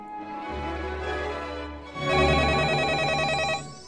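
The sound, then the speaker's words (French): A telephone rings in a museum with a rapid warbling trill lasting about a second and a half, preceded by a quieter steady tone, with no one talking. “Ah, téléphone. Mais ça vient d'où C'est pas courant dans un musée.”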